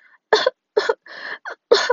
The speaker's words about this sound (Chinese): 进到小房间的公主开始不停的咳嗽